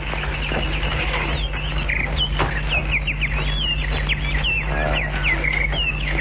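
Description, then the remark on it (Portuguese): Caged birds chirping in a busy, overlapping chorus of short, high twitters that keep going over a steady low hum, with no one talking. “Não vê que os pássaros podem escapar?”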